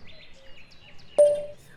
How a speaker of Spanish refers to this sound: Mira, estoy acá en un cafecito frente a la Recoleta, me vine a desayunar escuchando a los pajaritos.